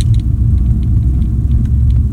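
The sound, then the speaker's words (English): A loud, continuous low roar of racing car engines as the cars tear by on a track, a deep rumbling drone with faint clicks and rattles on top. The sound holds steady throughout, with no voices. “Um, hearing the joy that he has, the love that he has, and that visceral sound of those cars as they tear by across the track.”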